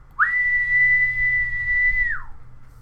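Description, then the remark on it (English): A single long, attention-getting whistle, like the one the character Alex uses in a movie to get his droogs' attention, held at a steady high pitch for about two seconds, sliding up at the start and dropping off at the end, loud over a faint low hum. “so you know the you know the the whistle that Alex uses to like get his droogies attention.”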